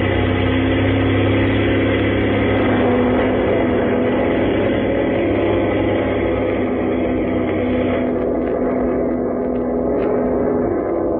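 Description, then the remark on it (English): Airplane engines run in a steady, loud droning roar with a low mechanical hum, continuing without a break for the whole stretch, with no voices. “Hurry up, sir, if you want to make a plane.”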